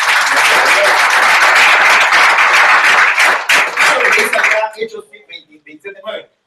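A church audience breaks into loud, dense applause to the Lord that holds steady for several seconds, then thins out into a few scattered, fading claps and trailing sounds at the end.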